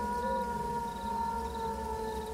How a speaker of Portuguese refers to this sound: Quando de repente a gente escuta um uivo muito forte.